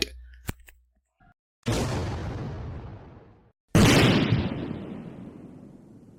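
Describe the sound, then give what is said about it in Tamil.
Two loud dynamite explosions, a deep booming blast followed by a long rumbling decay, then a second, even louder blast roaring out, preceded by a few faint clicks and pops. “என்னப்பா ஒரு பேச்சுக்கு பாடினா உண்மையிலேயே வெடிக்குது டைனமேட்டு”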